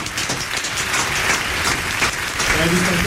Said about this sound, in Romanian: Băi, aplauze.